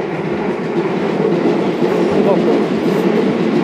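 An electric train rumbles past with a steady, dense roar and faint rhythmic clatter of wheels on rails, loud and continuous throughout, captured in a field recording through earphones with ambient sound passthrough.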